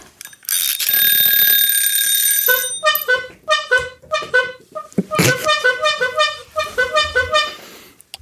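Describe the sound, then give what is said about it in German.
A comedic slapstick horn in the style of a Buster Keaton horn: a long, bright sustained blare followed by a burst of quick, rhythmic honks, a brief crash, then another rapid run of squeaky honks. Loud, with no talking. “Ja, eine schöne Buster Keaton-Hupe.”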